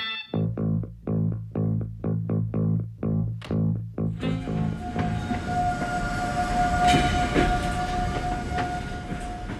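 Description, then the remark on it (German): A train rolling on rails on the journey from Moscow to Murmansk, in the film Compartment Number 6: a run of rhythmic, evenly spaced clacking thumps gives way to a loud, continuous rumbling roar with a thin metallic whine riding on top. “Auf der tagelangen Zugreise von Moskau nach Murmansk trifft die Finnin Laura auf den ungehobelten jungen Russen Ljoha.”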